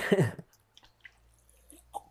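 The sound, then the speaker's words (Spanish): A brief vocal sound opens, then near-silence broken by a few faint, wet little clicks and gulps as someone quietly sips and swallows water. “va a tomar un poco de agua, pues.”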